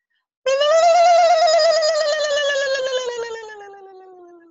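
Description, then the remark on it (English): A voice imitates a wild turkey with one long, loud, nasal call, held for about four seconds while its pitch slowly slides downward and fades slightly at the end. “It's not necessarily about achieving the the high octave as it is just about the experience of making the crazy wild turkey sound.”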